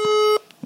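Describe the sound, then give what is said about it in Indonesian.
A single steady electronic tone rings out for about a third of a second as a phone call is dialed, followed by faint murmuring sounds and soft background noise. “Coba kita telepon uh,”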